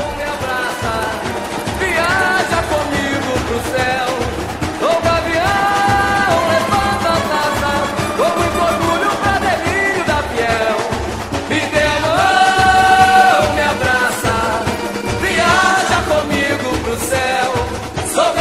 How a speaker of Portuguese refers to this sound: Vamos ouvir um pouquinho do samba da Gaviões da Fiel, campeã de 95.